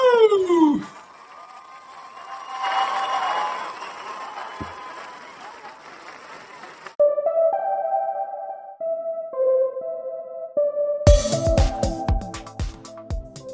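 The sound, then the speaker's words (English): A round of applause with a sliding whoop at the start: a short falling cheer gives way to several seconds of steady, moderate clapping before it fades out. “So maybe one last round of applause to finish on.”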